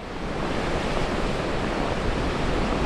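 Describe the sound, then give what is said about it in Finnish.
A winter storm at Lauttasaari in Helsinki, Finland: roaring wind and crashing surf fill the scene, a dense, steady rush of noise that stays loud and unbroken throughout, with no voices present. “Talvimyrskyssä Helsingin Lauttasaaressa”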